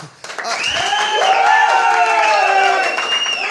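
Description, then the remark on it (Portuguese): A crowd breaks into sustained applause with loud whoops and cheers rising over the clapping. It starts abruptly and stays full and steady for a few seconds. “Obrigado pelo Salva convite. de palmas. Isso foi bom. Trouxe público, trouxe.”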